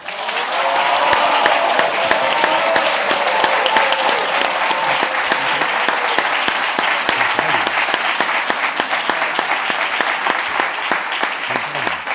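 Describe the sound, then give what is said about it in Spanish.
Sustained applause from a live audience at the Teatro Soco during the live show Política para Adultos, dense rapid clapping at a steady loud level for about twelve seconds, with a few faint voices and cheers mixed into the crowd noise. “Eh, bienvenidos a Política para Adultos desde el Teatro Soco en vivo y en directo y con este aplauso del público.”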